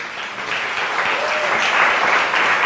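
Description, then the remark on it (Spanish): Sustained applause from a large audience, given as applause to the Lord, a dense, steady wash of clapping that stays loud throughout, with faint voices mixed in beneath it. “Dele otro aplauso al Señor.”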